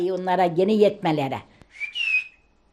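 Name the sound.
whistled language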